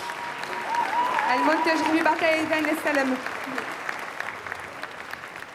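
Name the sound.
audience applause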